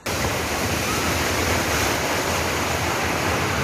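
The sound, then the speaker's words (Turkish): A loud, continuous rush of seawater surging ashore and churning after an earthquake at Sığacık, Seferihisar, İzmir, sweeping boats along. A dense roar starts abruptly and holds steady throughout, with no voices. “İzmirlilerin depremi hissedip koşmasıyla sular da yükselmeye başladı. Karayla deniz birleşti, tekneler sürüklendi, içinde mahsur kalanlar oldu.”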